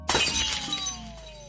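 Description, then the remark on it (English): A sharp crash of glass shattering, bursting loudly at once, followed by bright tinkling shards ringing and scattering as the sound slowly fades, with no one speaking. “That is the sound of my idealism shattering.”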